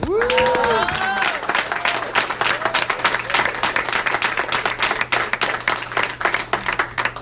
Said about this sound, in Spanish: Es más, hoy tiene el orgullo de tener su hijo aquí. También dale un aplauso.